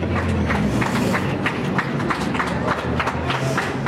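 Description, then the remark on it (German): A group of Apple employees, standing and clapping for nearly two hours, claps in a steady rhythm, sharp repeated claps roughly three per second, over a continuous low crowd murmur and some indistinct voices. “Also die, die Apple-Mitarbeiter scheinen jetzt mittlerweile, wenn wir es jetzt drei für sieben haben, die stehen halt schon seit äh, knapp zwei Stunden und klatschen sich die Hände rund.”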